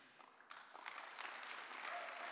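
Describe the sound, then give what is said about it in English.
A crowd breaks into applause, starting softly and quickly swelling into steady, dense clapping. “I've told you clapping is free. You can clap if you want.”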